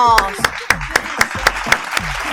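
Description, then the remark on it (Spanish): Audience applause for la química de Almagro arrives as a steady run of sharp, evenly spaced claps, about four per second, loud and crisp, with a brief voice heard at the very start. “Y también fuerte el aplauso para la química de Almagro.”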